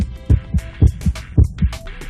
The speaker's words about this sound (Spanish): Estos latidos son provocados por impulsos eléctricos que se originan en el marcapasos natural del corazón.